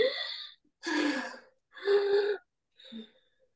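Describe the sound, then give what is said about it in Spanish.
Audible breathing during a breathing exercise: a few deep, drawn-out inhales and exhales in a steady rhythm, each a breathy rush of air, the last one shorter and softer. No talking. “Y respiramos. Inhalo y exhalo.”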